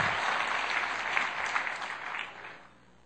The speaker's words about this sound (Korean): 축하 한번 해주세요. 박수 한번 주세요. 너무 잘했어요.